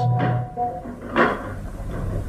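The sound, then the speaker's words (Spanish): A door opens with a short creak, followed by a single soft thud of wood at about the midpoint, and then quiet. “justo al acostarse la puerta se abre apareciendo el varón de Tífano y Lucas”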